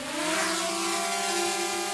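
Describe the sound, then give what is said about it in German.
A small robotic pollination drone buzzes with a steady, high electric whine made of layered tones, holding evenly loud for about two seconds with no voices. “Könnten kleine Roboterdrohnen bald die Honigbienen ersetzen?”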